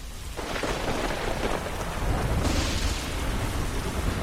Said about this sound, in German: Tiefe Regenwolken hängen über dem Launchpad 39A im Kennedy Space Center und das Wasser perlt in langen Fäden an der weißen Außenhaut einer Falcon 9 Rakete nach unten.